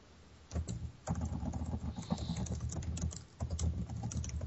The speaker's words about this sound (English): Oh, look at these people typing. typing. sorry, guys. That's like mice running across.